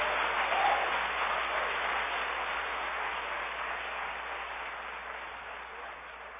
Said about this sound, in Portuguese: Quem recebe, aplaude ele bem forte.